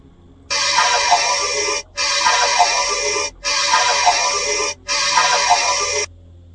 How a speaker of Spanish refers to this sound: Y lo que vais a escuchar es una excavadora picando una piedra.